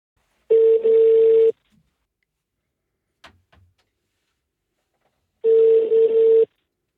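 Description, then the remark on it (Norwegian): A phone ringback tone sounds twice, each a steady one-second electronic purr separated by a long pause, with a faint click between them as the call rings out. “Ja, hallo, dette er Joakim Førsund som ringer.”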